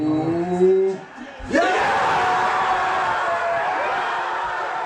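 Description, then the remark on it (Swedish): A few raised voices ring out, then a huge stadium crowd erupts into a sudden, loud roar of cheering at the final whistle when Leicester won the league, holding steady and sustained to the end. “Ja, eh, det var lite slutjubel från eh, tiden där de vann eh, ligan i Leicester och fortsätter att göra det bra och känns än mer etablerade just nu då i, i Premier League.”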